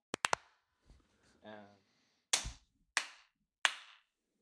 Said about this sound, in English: That'll might be the best claps I've ever done. Been practicing from last week.